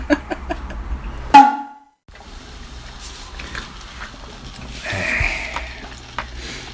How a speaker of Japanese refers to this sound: ちゅうわけでねコーヒーメーカーが動き出しましたねうん便利やねコーヒーメーカーってねえうんこの大量に作れるのがいいよねそうね何倍までいけんねん今6で入れましたけどあマックスちっちゃいコップで15杯はえでっかいコップで10杯へえ